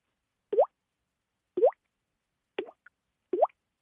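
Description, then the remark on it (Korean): Four separate water drops that collected on the ceiling of a bathhouse plop into a full bath, each a short hollow bloop with a rising pitch, spaced about a second apart in otherwise echoey silence. “목욕탕 속에서 이제 천장에 고이는 물방울이 탕에 떨어지는 소리죠 네딱 지금 목욕탕에 지금 앉아 있습니다 앉아 있습니다 들어보겠습니다”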